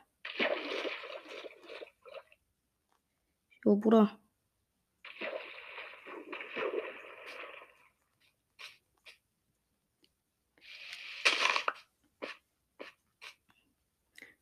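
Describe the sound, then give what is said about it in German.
Water splashes and sloshes in several noisy bursts as someone wades across a river, with a short yelp-like cry and a few brief spoken words in between. “Dann müssen wir mal den Fluss überqueren.”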